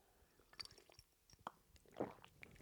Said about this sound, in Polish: Napiję się wody.